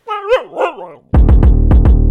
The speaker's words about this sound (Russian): Собака сидит с нами. Вот она сидит, собака.